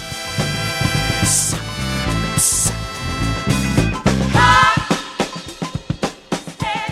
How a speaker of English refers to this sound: pulsing your left foot to open the hi hat up